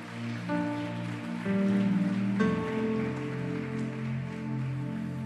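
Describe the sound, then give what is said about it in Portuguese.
An audience at a Christian sermon claps steadily and loudly, a dense wash of applause running the whole time over sustained keyboard chords that shift a few times. “Aplauda ele bem forte.”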